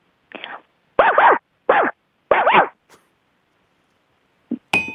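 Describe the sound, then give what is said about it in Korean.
A middle school student on a radio show mimics a dog barking with four loud, throaty woofs in an uneven rhythm, followed by quiet and a couple of brief faint noises at the end. “저 일단 개 소리요. 개, 그니까 그, 그, 개 짖는 아, 소리?”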